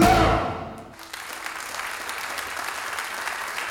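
An audience breaks into sustained applause, a dense, steady crackle of many hands clapping that follows a brief low, loud burst at the start and carries on evenly.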